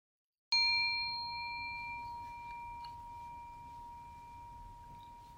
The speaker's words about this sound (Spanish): Al finalizar la meditación, voy a tocar el gong y a dejar tres minutos de silencio, después de los cuales voy a volver a tocar el gong y terminar el audio.